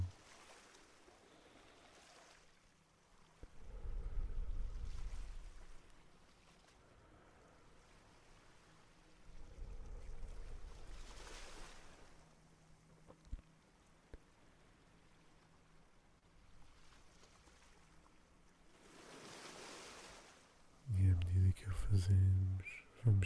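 Soft ocean waves wash in and recede in the surf zone in slow, recurring surges, each swell rising to a gentle roar before fading, with a calm quality and a brief low thump near the end.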